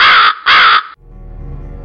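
Two loud, harsh, raspy crow caws in quick succession, followed by a quieter low background hum.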